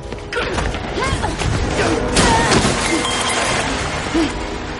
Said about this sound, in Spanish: Él se pone en pie y la tira contra una mesa.